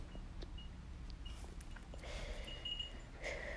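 A horse, Ulysse, in a stable snorts and sniffs at a person's hand in soft, breathy bursts, a few short exhalations in the last couple of seconds against a quiet, low rumbling background. No one speaks.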